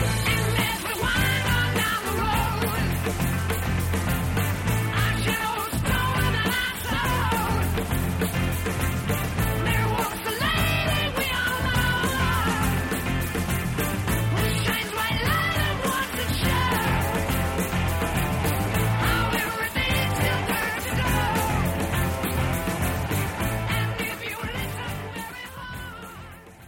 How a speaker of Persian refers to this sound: قسمت سوم آهنگ شروع میشه. تمپو دیگه رفته بالا. موزیک از اون حالت کلاسیک خودش اومده بیرون و شده هارد راک. موزیک عصبانی شده.